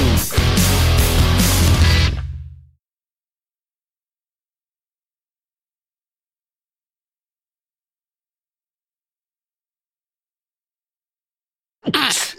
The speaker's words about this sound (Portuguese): Ah, desculpa aí, gente, sequência de espirros, foi mal. Ah. Calma aí, calma aí, que agora atacou.